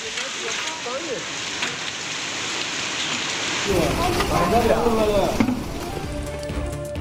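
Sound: hailstorm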